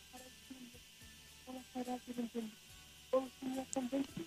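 A voice on a phone line keeps breaking up, cutting out in short bursts with gaps of near silence, and a faint electronic buzz runs underneath.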